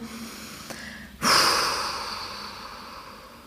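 A single deep breath during a guided breathing exercise: a quieter intake, then a loud, broad exhale through the mouth that starts abruptly and slowly fades over a couple of seconds, with no talking.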